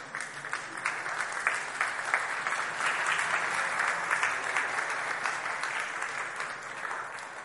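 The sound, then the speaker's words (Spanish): Steady audience applause for the children fills the whole stretch, many hands clapping densely at an even, moderate loudness with no voices over it. “Aplauso para nuestros hijos.”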